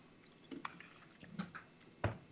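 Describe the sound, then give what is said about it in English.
Crunchy chewing of a muesli bar, a series of short, irregular crackly bites with one sharper crunch near the end, fairly quiet and with no talking. “I'm sitting here eating a muesli bar. I can eat it on camera and crunch.”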